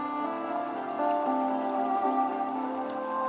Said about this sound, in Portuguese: fluindo, assim como essa chuva que cai.